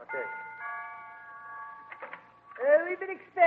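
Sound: doorbell ringing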